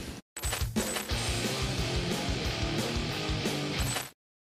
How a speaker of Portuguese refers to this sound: Agora, solta a vinheta aí.